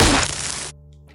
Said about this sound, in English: Uh, you guys across the river, you will kind of see real faint headlights and car tires screeching, and you hear more gunshots and right over the river, and it, it, a bullet just hits the building right next to you.